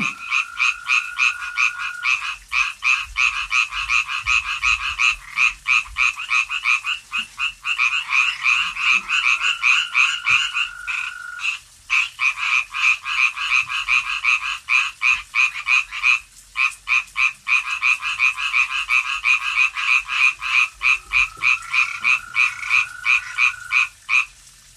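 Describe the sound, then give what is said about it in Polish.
A dense chorus of frogs in a pond right under a window croaks without pause, rapid pulsing calls overlapping loudly and close by, with a brief dip in the racket before it surges again. No voices are heard. “Staw z e, kumkającymi non-stop żabami tuż pod oknem.”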